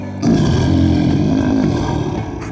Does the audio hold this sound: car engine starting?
no